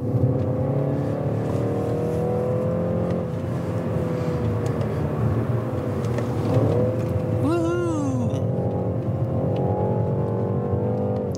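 A BMW 3 Series 330i engine drones loudly and steadily with a rich, layered hum during a test drive, then the pitch climbs in a rising whine as the car accelerates near the end.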